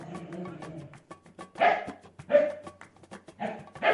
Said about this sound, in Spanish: Aunque no es un perro guardián, su buen oído, olfato, magnífica visión y su gran fidelidad le llevará a alertarte de cualquier cosa que entienda que no es normal y ladrará para avisarte.